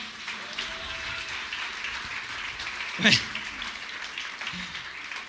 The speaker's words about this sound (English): Little round of applause for the equalizer.